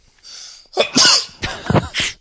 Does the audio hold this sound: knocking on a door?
no